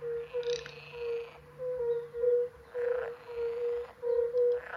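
A garganey duck gives dry, rattling calls in several short bursts over a steady, droning chorus of dozens of fire-bellied toads in a quiet wetland.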